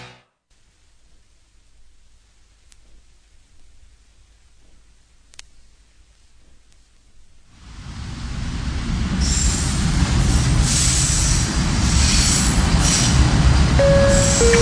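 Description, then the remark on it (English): Near-silence for several seconds, then a subway train's loud rumble swells in and holds, with metallic wheel squeals and high screeching tones riding over the roar, as the train runs with Savin Hill Station as its next stop. No one speaks. “Next stop, Savin Hill Station. Doors open on the left.”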